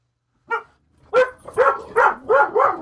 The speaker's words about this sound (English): Hey, relax. Come on. What are you barking at? You can't even see anything. Yeah. Hey, come here.